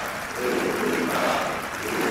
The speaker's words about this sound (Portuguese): Sala novamente de pé para aplaudir Luís Montenegro